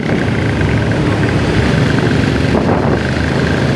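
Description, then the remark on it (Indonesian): A loud motorcycle engine roars with a steady, rumbling drone that fills the whole moment as a noisy motorcycle revs and passes on a public road in Indonesia. No one speaks over it. “gue gue gue sentimen sih gue kalau sama, sama motor-motor berisik kayak gitu tuh apa apa apa yang yang lu mau lu lu minta pengakuan siapa lu lu minta pengakuan siapa di jalan umum lu geber minta pengakuan siapa”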